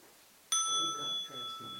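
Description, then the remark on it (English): A single bright bell strikes sharply and rings on with a clear, sustained metallic tone, while faint voices murmur softly beneath it. “well, by the bell.”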